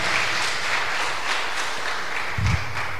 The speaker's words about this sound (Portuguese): Você pode aplaudir ao Senhor, pode se assentar.